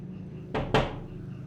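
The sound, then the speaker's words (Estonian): Two quick, solid knocks on a door, evenly spaced, against a low, steady background hum with no talking. Neighbours are knocking on the windows and door of a young family's single-storey wooden house, which is locked with its curtains drawn. “naabrid ei tea, et samal ajal kui nemad akendele ja ustele koputavad, on majas kaks surnukeha.”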